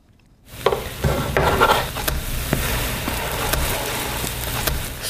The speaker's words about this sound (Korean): 오늘은 호떡 뒤집고 굽는 소리였어요. 호떡 뒤집고 굽는 소리.